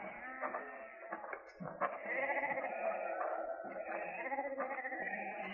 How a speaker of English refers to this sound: He's your sheep? Yeah.